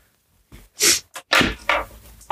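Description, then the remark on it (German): A sharp sneeze followed by several wet, noisy bursts of a nose being blown into a tissue, coming in quick irregular blasts with no talking. “Jetzt kommen richtig viele Buddelmänner in der Taschentuch. Oh, Alter, ich hört. Alter, rotzt der da rum.”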